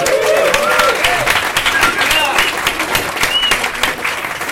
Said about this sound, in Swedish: Att det betyder att där ska man applådera. Det är bra, ni är med.